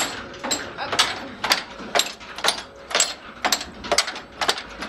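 A flour bolting machine, turned by a belt, runs in a mill with a steady mechanical clatter, regular knocking bursts repeating about twice a second over a continuous whirring rumble, with no one speaking.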